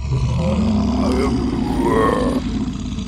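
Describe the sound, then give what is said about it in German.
A loud, growling grizzly bear roar rumbles for about three seconds, deep and rough with rising and falling tones, continuous with no talking. “Und es handelt sich dabei um einen Geister-Grizzlybären.”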